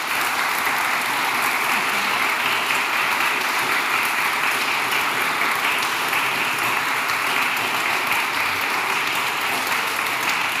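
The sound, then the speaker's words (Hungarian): A large audience applauds both parliamentary candidates at the end of a debate, steadily for about ten seconds, a dense, even wash of many hands clapping at once with no voices over it. “Egy nagy tapsot szeretnék kéne a közönségtől mindkét képviselőjelöltnek.”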